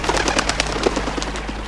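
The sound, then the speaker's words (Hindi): A pigeon bursts into flight from a tree branch with a rapid, clattering flurry of wingbeats, fairly loud, the flaps coming in a quick irregular rhythm for under two seconds with no voices. “और अचानक पास ही एक पेड़ की टहनी पर एक कबूतर यानी कि पिजन पी फॉर पिजन कबूतर बैठा हुआ था उसने चींटी को डूबते हुए देखा फिर क्या था पिजन कुडंट सी दिस वो फटाक से उड़ा”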